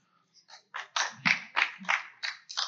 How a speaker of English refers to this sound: I plant them in every crowd. We're always just hoping the applause will just be contagious. Apparently, it's not.